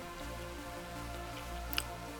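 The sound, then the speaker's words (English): A beer can cracks open with one short, sharp snap and a quick hiss of fizz, set against a quiet, steady low hum with no one speaking. “Let me segue this because as you crack open a beer and I take a sip,”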